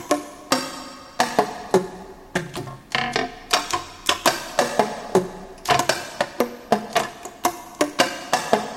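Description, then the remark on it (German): A rapid, rhythmic series of saxophone key clicks played without blowing, each sharp tap carrying a faint hollow pitch, fairly loud with no talking. “Zum Beispiel kann man auch mit den Klappen alleine Musik machen.”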